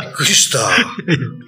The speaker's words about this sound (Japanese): 今のくしゃみです